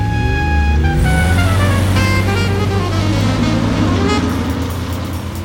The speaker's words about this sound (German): Jordan, Tom und ich setzten uns vorne in Gatsbys Wagen. Tom probierte die Gänge durch und schon schossen wir in die drückende Hitze hinaus.